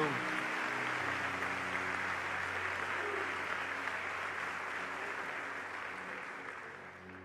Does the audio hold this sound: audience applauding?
yes